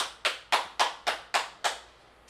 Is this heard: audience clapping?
yes